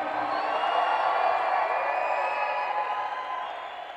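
An audience shouts and cheers joyfully, a dense, sustained roar of many voices at steady loudness, easing slightly toward the end.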